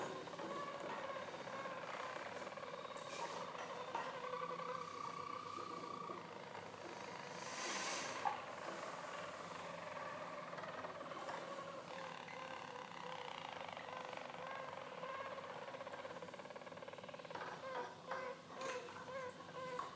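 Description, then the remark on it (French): Four Harz roller canaries sing together in a continuous, overlapping stream of soft, rolling trills and low warbling tones that hold steady for the whole stretch, with no voices. “Voilà, donc on a eu les quatre qui se sont mis à chanter.”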